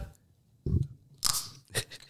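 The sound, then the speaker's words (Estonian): A flying squirrel drinking from its water bottle: a dull knock followed by two short, crackly rattling bursts, fairly quiet, with no talking. “oh, vot nii, see on lumiorava veepudeli hääl.”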